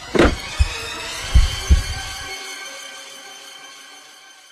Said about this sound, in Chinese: 对方挂断了电话，屋里面安静极了，只能听到电话里的忙音和我自己的心跳声。